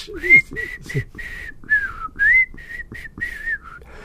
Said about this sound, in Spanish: Bueno, hay varios temas que se pueden silbar. Fíjate el segundo.